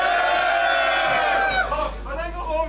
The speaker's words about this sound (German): Und bitte einmal Lärm